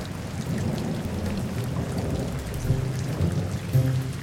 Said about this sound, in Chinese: 接着大家都到了屋内，因为外面的雨越来越大了。